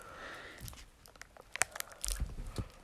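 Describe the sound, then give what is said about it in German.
Crisp crinkling and tearing of thin plastic wrapping as a lollipop is unwrapped, with a string of sharp crackles and small pops over a few seconds, no talking. “Das ist schwierig, dieses Plastik hier die ganze Zeit Lolli aufzukriegen. So. Lolli schon mal frei. Jetzt muss ich noch die Toilette aufreißen”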